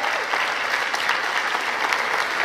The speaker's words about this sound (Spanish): Hoy los honramos, apláudales bien fuerte.